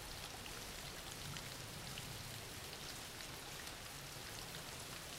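Steady rain falls without pause, a dense, even hiss of countless drops pattering on a surface, with no voices or other sounds over it.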